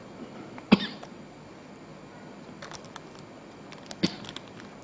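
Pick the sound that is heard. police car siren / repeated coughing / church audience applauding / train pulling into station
repeated coughing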